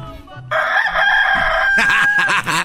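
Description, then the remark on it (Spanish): A single loud rooster crow from a rooster alarm clock, the 'despertador del gallito' of Laboratorios Yayo, rings out, a long sustained high-pitched cock-a-doodle-doo lasting about two seconds, its final notes breaking into a raspy, wavering trill. “Recuerden que en Laboratorios Yayo nosotros les tenemos los productos más importantes para usted y el día de hoy ofreciéndoles a todos y a todas el despertador del gallito.”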